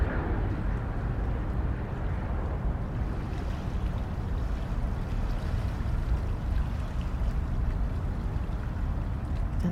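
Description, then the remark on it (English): A steady rush of water from the Potomac River flows without pause, dense and rumbling in the low end with a constant churning hiss, and no voices over it. “quiet comes and the water is the sound that you hear.”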